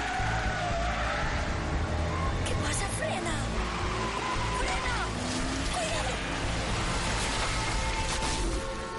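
A speeding car spins out of control on a curve, its tires squealing in wavering, rising and falling pitches over a loud, steady roar of engine and road noise that lasts throughout.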